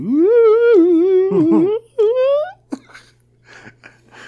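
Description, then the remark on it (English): A voice imitates a theremin with a loud, wavering, gliding tone that swoops up and down for a couple of seconds, then breaks off into breathy laughter and quieter murmuring. “I'm the kind of guy that would pay money for a theremin. Like I just want to wave my hands around and make it funny noises.”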